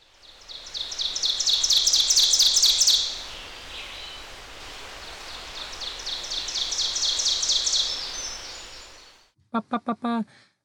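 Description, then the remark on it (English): An ovenbird sings two loud, ringing songs of rapidly repeated chanting notes, each swelling louder before stopping, over a steady hiss of forest ambience; a voice starts speaking briefly at the end. “That's the sound of an ovenbird, and it's one of eight amazing bird nest builders I'll be sharing about.”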